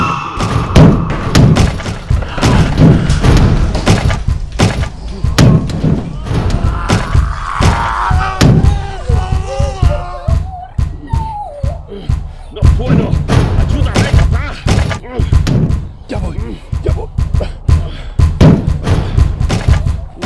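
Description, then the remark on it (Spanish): Heavy, repeated thuds pound against a door in a rapid, relentless, loud barrage, with panicked voices shouting over the banging throughout. “¡Ya vienen otra vez! ¡Que la puerta, mierda!”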